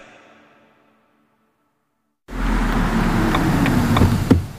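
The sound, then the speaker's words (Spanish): After a faint fading tone and about two seconds of silence, a car engine and road noise cut in abruptly: a loud, steady driving rumble with a brief sharp knock near the end. “la energía que necesita tu coche para llevarte a ver a tu madre”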